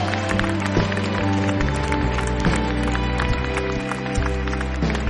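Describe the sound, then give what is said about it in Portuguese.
A church audience applauds steadily for about five seconds. The clapping blends with loud sustained music from keyboard and bass that fills the room throughout. “Aplauda a igreja, aplauda a igreja, aplauda a igreja.”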